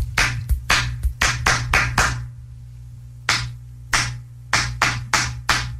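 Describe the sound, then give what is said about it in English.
A quick run of sharp hand claps in a rhythmic pattern, a pause, then another burst of claps answering back the beat, each crisp and fairly loud over a low steady hum. “I'm going to give you a beat and you match it back, okay?”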